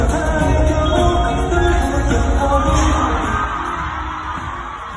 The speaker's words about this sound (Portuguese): você está vendo aí a gritaria, você vê que algumas, alguns dos cantores ainda continuam cantando, o som continua rolando porque muita gente não entendeu o que estava acontecendo naquele momento, né?